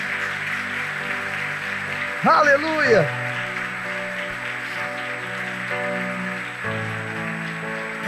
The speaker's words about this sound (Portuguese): Posso ouvir um amém, meus irmãos? Vamos aplaudir bem forte ao Senhor.